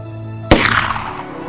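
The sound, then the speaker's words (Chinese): A single loud gunshot rings out inside a room as two people force its locked door open, cracking out after a low, steady hum, its sharp blast trailing off into a ringing, fading tail. No one speaks. “于是两个人合力撞门，门一开，他们立刻冲进去，而在那一瞬间，屋里竟然响起了枪声，接着又一枪。”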